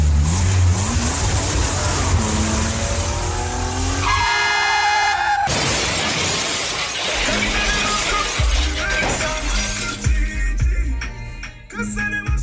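A car roars along, its engine revving loudly, with a sustained blare of the horn partway through and more honking and engine noise afterward. No one speaks.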